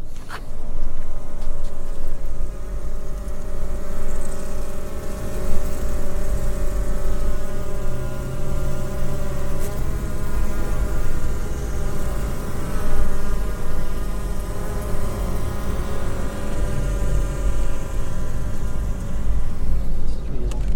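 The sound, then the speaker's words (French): A dense, steady hum of honeybees buzzing in a hive, their wings droning continuously and fairly loud for the whole stretch, with no one speaking over it. “Et euh, tu n'auras pas du tout le même régime normalement euh, de bruissement d'aile.”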